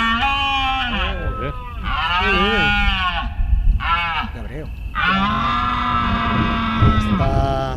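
Red deer stags bellowing in the rut at Monfragüe: a series of loud, drawn-out, groaning roars, several calls in a row with wavering pitch, some overlapping as if more than one stag answers.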